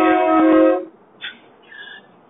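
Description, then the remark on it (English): A loud, harmonically rich truck horn blares once for most of a second, then cuts off, followed by a couple of faint, higher-pitched tonal blips. “This horn should not. They're horrible. Well, I think the trucks that they're attached to are horrible.”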